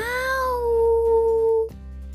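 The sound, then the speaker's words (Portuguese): A single long, drawn-out cat meow that starts higher and slides down in pitch, loud, over a faint low background hum, ending abruptly. “Caiu de uma árvore bem alta um gatinho atrapalhado que fugiu da sua cidade.”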